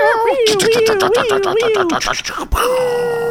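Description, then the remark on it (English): A person voices a loud, wavering cat-like yowl for about two seconds, its pitch sliding and trembling over a rough, pulsing rasp, followed by a sharp knock and a brief steady hum. “I don't know why I made the cat noise.”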